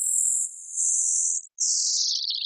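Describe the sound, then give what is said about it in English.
A fast radio burst signal, radio-wavelength light from millions of light years away converted to sound: a thin, high-pitched hissing whistle that slides gradually downward in pitch, briefly cutting out midway before resuming, steady and fairly loud with no voices. “One radio burst's wavelength light was converted to sound.”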